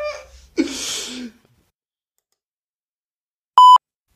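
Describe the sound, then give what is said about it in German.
A short electronic beep-like buzz from mobile phone interference, caused by incoming messages on the phone, cuts in sharply near the end, preceded by a burst of noisy static and a faint voice-like murmur at the start. “Ich habe jetzt mal mein Handy in Flugmodus geschaltet, vielleicht, weil eben sind da so Artefakte aufgetreten, als das Handy äh, als Nachrichten reinkam.”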